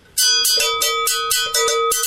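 Agogo bells struck in a quick, steady rhythm, about eight bright metallic clanks ringing close and loud with no voices.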